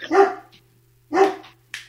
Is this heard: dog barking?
yes